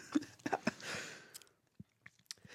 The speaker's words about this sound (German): Ja, ich darf muss noch weiterreden, weil der Herr noch kaut. Ja. Mir fällt doch nichts ein. Lass mich doch kauen.